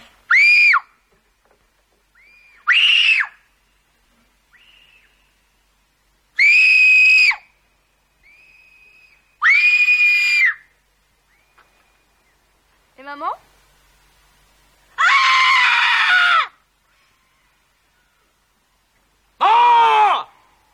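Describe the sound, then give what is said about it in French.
A series of loud, piercing human screams, about seven in all, each a second or so long, separated by short pauses with softer vocal sounds between them, some sliding downward in pitch. “Tu as dit, je reconnais que c'était un beau cri. Recommence pour voir. Moi, je vais faire plus fort.”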